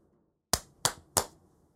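Three sharp, bright slaps of a person's hand against their own face to wake themselves up, evenly spaced about a third of a second apart, each with a crisp smack and quick decay, with no talking.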